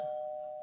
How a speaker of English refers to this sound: That's the doorbell. Ignore that. It's okay.